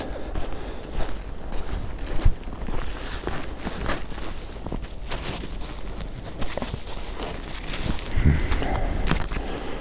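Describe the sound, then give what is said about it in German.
Steady crunching footsteps tramp through snow, a dense run of soft, gritty crunches at a walking pace with a constant low rumble underneath and no voices. “ich hoffe, äh, man hat mich gehört und hat nicht nur den Schnee verlaufen gehört”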